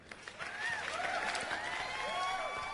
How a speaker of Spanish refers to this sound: un aplausito también para vos.